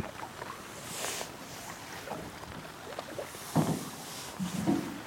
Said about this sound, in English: I'm struck again by the utter quiet of this wilderness. All I can hear is the paddle moving through the water and the brush of my coat.